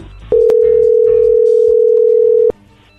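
A loud, steady telephone dial tone hums at one low-mid pitch for about two seconds while a phone number is being dialed, starting and ending with sharp clicks, with faint background murmur underneath.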